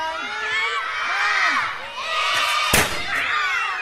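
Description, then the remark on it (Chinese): A crowd of schoolchildren shouts and cheers excitedly during a class, then a smoking rice puffing cannon goes off with one sharp, loud bang as the children cover their ears, and the excited voices carry on afterward. “上课上到一半，锅炉也冒起了烟，大家纷纷捂起耳朵。”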